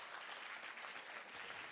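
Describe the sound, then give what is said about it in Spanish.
An audience applauding together, a dense, steady wash of many hands clapping at an even loudness throughout, with no single claps standing out and no talking over it. “Si usted lo cree, denle un aplauso fuerte a Jesús.”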